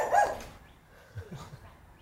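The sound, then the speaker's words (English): As dogs go by, one gives a sharp bark, then a few softer, lower barks follow a second later, against a quiet background with no talking. “Some dogs going by.”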